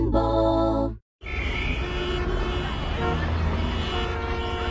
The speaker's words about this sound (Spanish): Qué lindo sería un día sin el ruido del tránsito.